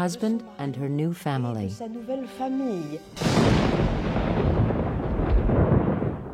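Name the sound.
thunder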